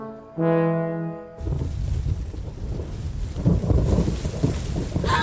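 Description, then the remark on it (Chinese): After a brief steady tone, a thunderstorm breaks in: dense rain hisses continuously while low, rolling thunder rumbles underneath and swells louder toward the end. “暴风雨来了，待在树上可不安全。”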